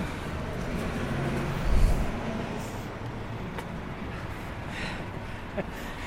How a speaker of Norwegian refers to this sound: dette her er en ekstremt kaotisk lydlandskap. Er det? Ja, vi er trafikk overalt.